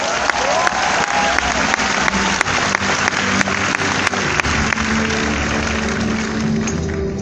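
Sustained applause from an audience at a leadership skills talk, dense and steady for about seven seconds, with a few sharper individual claps standing out and faint murmuring voices underneath.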